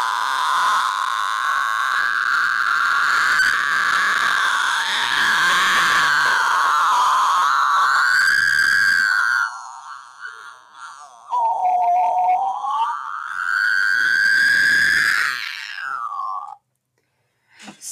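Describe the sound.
A single voice produces a sustained, strained multiphonic shriek, the vocal cords vibrating in two ways at once, layered and gritty like a creature's cry, rising and dipping in pitch over long breaths with brief pauses between.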